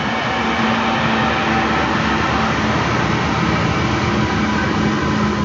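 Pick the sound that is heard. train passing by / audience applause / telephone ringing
train passing by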